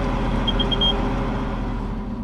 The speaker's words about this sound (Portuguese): Mesmo ao ralenti, o motor pode denunciar a presença dos agentes da Polícia Marítima